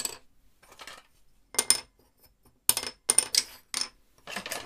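Old wooden cello soundposts, kept from old instruments, tapped one after another to compare their pitch: bright clicky knocks in short irregular bursts, fairly quiet, with no talking.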